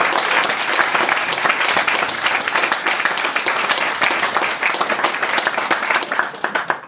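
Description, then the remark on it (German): A crowd applauds the Hukast, many hands clapping in a dense, even wash of sound that stays loud throughout before easing slightly at the very end. “Einen kräftigen Applaus für den Hukast.”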